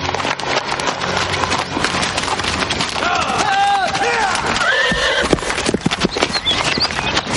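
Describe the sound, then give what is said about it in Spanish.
Horses gallop with a dense, rapid drumming of hooves as they approach along a path, and midway a horse lets out a loud, wavering whinny before the pounding hoofbeats carry on steadily. “De repente se incorpora al escuchar una cabalgada que se acerca por un camino.”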